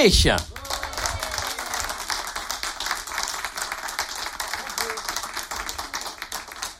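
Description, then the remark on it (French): An audience bursts into applause to welcome a guest on a show, a dense, steady patter of many hands clapping that stays fairly loud and even for about seven seconds. “Je vous demande d'applaudir notre invité”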